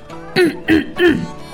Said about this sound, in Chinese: 卡梅利多清了清嗓子，对着莫扎特唱了起来